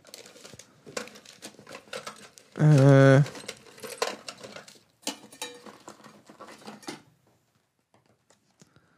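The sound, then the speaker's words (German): A drawer is pulled open and its contents are rummaged through while someone searches for a pen, with clattering, scraping and crinkling bursts for several seconds, and a brief voiced hesitation partway through. “Äh, ich äh, öffne gerade eine Schublade und ähm, versuche mal.”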